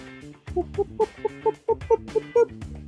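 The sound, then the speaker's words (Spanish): A person imitates a duck, letting out a quick run of about nine short, nasal quacking squawks, fairly loud, with no ordinary speech around them. “O sea, me reiría porque fijo, fijo, hijo, hijo, me está hablando de pato, ¿verdad?”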